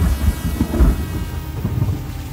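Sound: rain starting to fall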